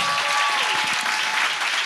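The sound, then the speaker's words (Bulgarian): A church audience applauds, many hands clapping together in a dense, steady wash of sound that holds at an even loudness throughout, with no clear talking over it. “Аз бих ръкопляскал, ако бях от другата страна.”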